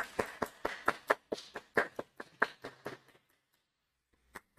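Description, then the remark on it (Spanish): A quick, slightly uneven burst of hand clapping, about a dozen sharp claps over three seconds, then a pause before two final claps. No one speaks. “Aplaudimos que la pases.”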